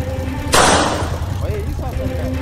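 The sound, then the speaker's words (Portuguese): A second sharp gunshot bang cracks out over a low motorcycle engine rumble, then the motorcycle's engine whines upward as it accelerates and the man rides away, staying fairly steady in loudness afterward. “Mas o disparo foi ouvido de novo.”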